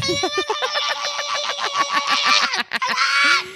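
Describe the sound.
A voice mimics a hyena's cackling laugh: a rapid, steady run of short, high-pitched whooping yelps, loud, ending in a brief breathy rasp.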